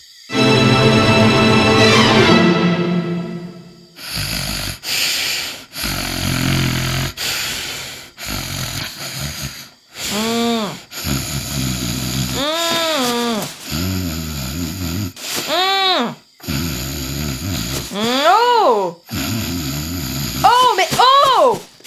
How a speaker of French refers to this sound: Qu'est-ce qui se passe Tu ronfles Bah oui, et alors Et alors Ça m'empêche de dormir